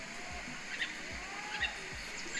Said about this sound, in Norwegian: Og så var det sinnssykt med fuglelyder. Jeg hadde også tatt opp det. Kan du, kan du høre litt her? Litt sånn Jumanji-aktig?